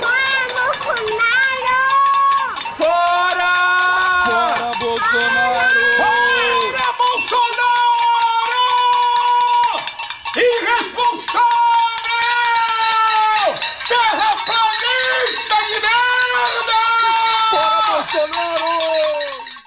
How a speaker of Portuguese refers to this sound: Peraí, silêncio, vamos ver se a gente consegue captar o som do protesto.